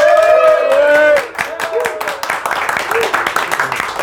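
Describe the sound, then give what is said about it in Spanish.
A voice rings out briefly, then a small live audience in a shop in Santiago, Chile breaks into steady applause, many hands clapping in a dense patter that carries on to the end. “como se habrán dado cuenta, hay público presente. ¿Sí? Por favor, aplaudan para que se escuche.”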